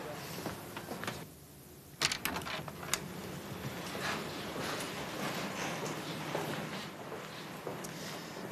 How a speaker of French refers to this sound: vous avez ici la salle des terminaux et des imprimantes. Un document est donc sorti de cette imprimante.